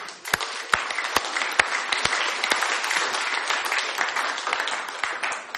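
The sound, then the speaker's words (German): A church audience applauds steadily after thanks to the new music team, a dense wash of many hands clapping with a few sharper individual claps standing out, sustained at an even, fairly loud level throughout. “Also einen Applaus für ihn.”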